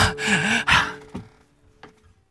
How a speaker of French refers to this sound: Tout le monde prend sa respiration.